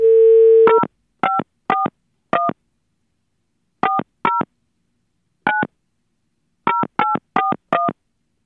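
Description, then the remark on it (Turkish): A steady dial tone cuts off, followed by a series of short two-tone keypad beeps pressed in irregular bursts as a phone number is dialed to call a listener during a broadcast. No one speaks. “Ben şöyle bir aramayı deneyeyim hemen.”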